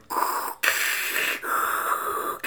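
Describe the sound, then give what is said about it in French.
A voice imitates Darth Vader's heavy respirator breathing: three long, raspy, hissing breaths, alternating in and out, loud and steady, with short gaps between and no talking. “C'était Darth Vader.”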